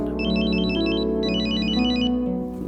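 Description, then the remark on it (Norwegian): A mobile phone ringtone plays a rapid, warbling electronic trill in two bursts over a steady tonal background, loud, with no one speaking, as a call comes in from an unknown number. “Eh, det ringte fra et ukjent nummer på telefonen min.”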